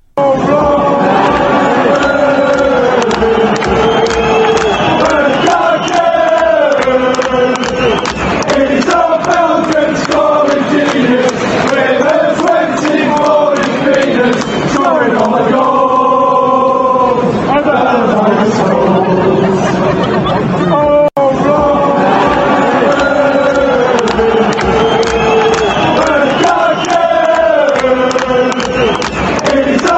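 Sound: football supporters' chant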